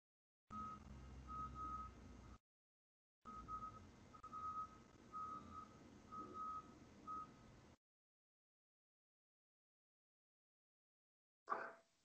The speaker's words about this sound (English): Is that truck backing up? Yeah. yeah, it is. It's a. Uh, it's either that or snow plows.